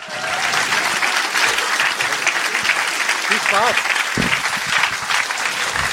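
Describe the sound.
Sustained, dense audience applause at a live show, given for a participant on stage, fills the whole stretch at a steady loud level, with a voice calling out briefly over the clapping partway through.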